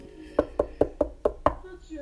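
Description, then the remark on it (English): Six quick, evenly spaced knocks rap out clear, imitating someone knocking at a door, like knuckles on a wooden door, each a sharp thud with a short ring, arriving in a steady rhythm. “I'm like, is somebody at our door?”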